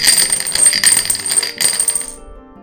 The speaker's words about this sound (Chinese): 再来，我们最后补充一下这个骰子哈，来骰一下给一号的人。